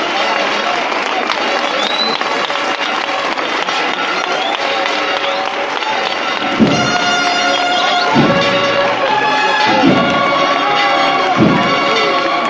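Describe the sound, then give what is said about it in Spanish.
A large crowd applauds and cheers in a dense, continuous roar at sunrise as a procession float exits the parish church of La Merced in Jaén, with the parish bells ringing above it and deep, evenly spaced booming thumps joining in during the second half. “en breve pues escucharemos Las Palmas y la marcha real”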